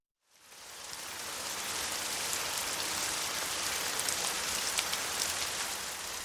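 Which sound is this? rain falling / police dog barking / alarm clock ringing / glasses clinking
rain falling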